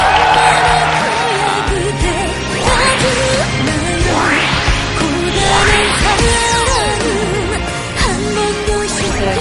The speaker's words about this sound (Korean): 박수 부탁드리겠습니다. 어서 오십시오. 어서 오세요. 아, 네. 박수 다시 한번 부탁드리겠습니다.